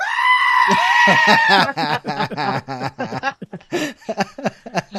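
A goat lets out a loud, drawn-out bleat lasting over a second, followed by a rapid series of shorter, choppy bleats.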